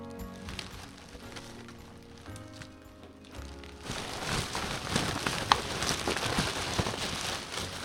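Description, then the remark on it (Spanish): Crinkling, rustling plastic being handled, a pile of a week's saved household plastic waste too big to hold in one's arms: a quieter start with some tonal background, then from about four seconds a dense, loud burst of crackling and crunching as the heap is grabbed and shifted. “Esto que estáis escuchando es un buen montón de plástico que no puedo ni abarcar con los brazos.”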